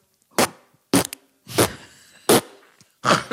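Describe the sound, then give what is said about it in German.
A person imitates cheerful farts with their mouth: five short, sputtering, buzzy bursts in a steady sequence, each fairly loud, with brief quiet gaps between them. “Mach mal nur mit dem Mund einen fröhlichen Furz.”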